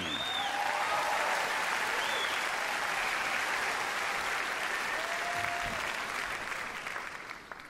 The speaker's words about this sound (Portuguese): Oh, that, that walk was a bit longer than I'd anticipated. and clearly a bit longer than you'd all anticipated with the amount of applause you'd allocated for the walk.